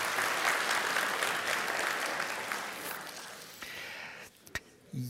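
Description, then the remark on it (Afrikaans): An audience claps hands in a dense, steady wash of applause that gradually thins and fades, with a few last scattered claps near the end. “Geef hom 'n lekker hande klap toe.”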